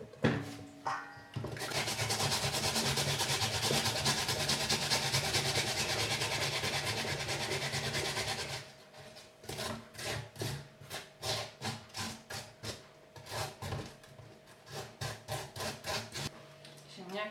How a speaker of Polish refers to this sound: przetarte, cebulka przetarta. Teraz wygarnę sobie starki jeszcze resztę tych potartych ziemniaków.